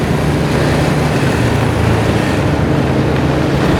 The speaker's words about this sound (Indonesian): gue sentimen sih gue kalau sama, sama motor-motor berisik kayak gitu tuh apa apa apa yang yang lu mau lu lu minta pengakuan siapa lu lu minta pengakuan siapa di jalan umum lu geber minta pengakuan siapa